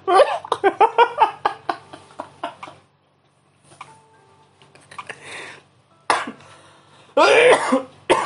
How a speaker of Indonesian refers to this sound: aduh duh batuk gue jadi batuk